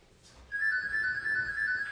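A telephone rings with a steady, high electronic tone that starts partway in and holds unbroken to the end, fairly loud, with no voices.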